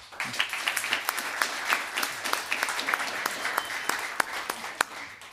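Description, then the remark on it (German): An audience applauds to vote for Terry Halliburton to win a bag, many hands clapping steadily in a dense, crackling wash with sharper individual claps popping out, sustained for the whole stretch without talk. “Einmal bitte den Applaus für Terry Halliburton.”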